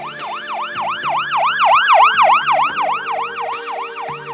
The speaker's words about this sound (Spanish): la sirena de una ambulancia que pasa suena más aguda cuando se acerca y más grave cuando se aleja